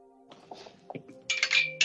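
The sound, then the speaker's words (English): A ten-sided die (d10), rolled for flair as a player's character kicks a door open in a game, rolls across a hard surface, starting with faint scattered taps and ending in a loud burst of bright, rapid clicks and clattering as it tumbles to a stop. “Roll me a d10 just first off for flair.”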